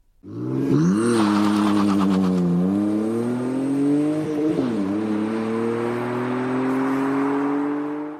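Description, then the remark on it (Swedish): A two-litre BMW six-cylinder engine revs up, its smooth rising drone climbing in pitch, easing off briefly, then pulling strongly again with a steady, loud whir through the gears. No one speaks. “Vi kan väl lyssna lite på en 2 liters BMW 6 här.”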